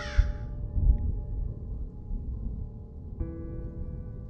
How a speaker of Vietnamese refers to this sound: Bầu trời đang trong Đầy ánh sao Bỗng chốc mây đen kéo đến dày đặc Tiếng quạ Tiếng chim lợn kêu lên như báo hiệu những chuyện không lành sắp sửa xảy ra